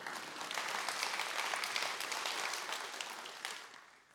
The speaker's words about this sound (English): Somebody can clap for that for sure.